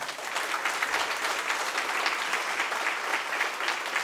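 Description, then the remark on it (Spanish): An audience applauds steadily for about four seconds, a dense, even wash of many hands clapping at a consistent loudness with no voices standing out. “Esto es ambos, señores, el cual se merece un fuerte aplauso también.”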